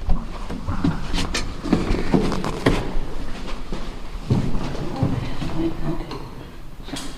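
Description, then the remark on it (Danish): A door being opened, with a few sharp clicks and rattles of the latch and handle over a steady low rumble, and faint voices. “Jeg skal lige åbne døren her.”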